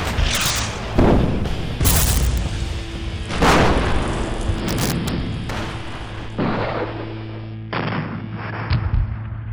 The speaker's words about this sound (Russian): Японские корабли открыли огонь по русским сразу на поражение. Началась сильнейшая артиллерийская канонада. Японцы и русские довели свой огонь до предела.